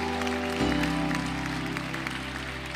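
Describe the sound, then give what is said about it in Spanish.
An audience applauds the Lord steadily, a dense wash of clapping over a sustained low organ-like drone that shifts pitch early on, with no voices standing out. “Dámele el aplauso al Señor.”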